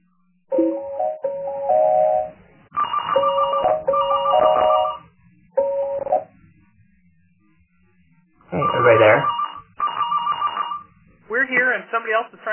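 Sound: phone ringing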